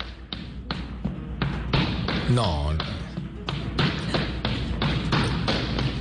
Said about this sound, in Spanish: escucha mi zapateo, escucha mi zapateo.